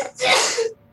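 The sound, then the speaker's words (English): A single sharp sneeze bursts out, a quick breathy explosion lasting about half a second before cutting to quiet. “Uh, bless you. That was me.”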